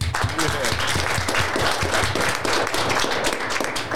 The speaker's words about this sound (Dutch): Ja, dames en heren, geef ze, geef ze een applaus. En ik wil een nog groter applaus voor uh,